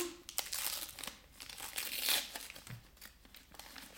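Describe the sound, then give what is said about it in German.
Paper crinkles and rips for several seconds in a continuous, busy burst of tearing and crumpling, fairly loud, as the wrapping on a gifted book is pulled open. No one speaks. “Jetzt kommt hier wieder die Geräuschkulisse vom Auspacken.”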